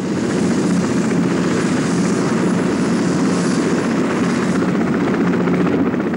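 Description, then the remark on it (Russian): A helicopter sits at a base with its rotors running as people load equipment to leave, a loud, steady roar and rapid whine filling the air without pause. No voices are heard. “Нет, медведь пришел ровно тогда, когда мы улетали с этой базы, О стоял вертолет с заведенными винтами.”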